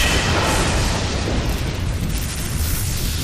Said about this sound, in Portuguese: Não consegue um trovão tão grande quanto você gostaria mas você conduz um raio que acerta o porquinho.